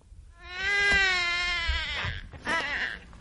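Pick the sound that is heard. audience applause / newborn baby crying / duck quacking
newborn baby crying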